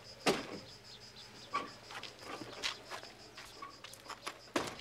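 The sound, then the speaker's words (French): A door is pushed shut with a solid thump near the start, then soft clicks and shuffling before a second sharp knock at the end. No one speaks, and the room is fairly quiet. “Ferme la porte”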